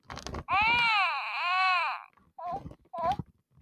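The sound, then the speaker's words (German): A baby-doll toy lets out a loud, wavering cry lasting over a second, followed by two short whimpering sobs after a brief pause. “Das hört sich an wie ein Baby.”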